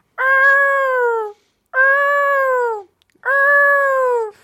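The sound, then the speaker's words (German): A voice imitates the Death Star warning alarm: three loud, drawn-out wailing tones, each about a second long and sagging slightly in pitch, separated by brief pauses. “Das ist das Todesstern-Warngeräusch.”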